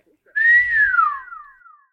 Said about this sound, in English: … whistled.